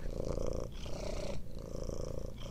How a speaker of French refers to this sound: tu dois connaître la ronron thérapie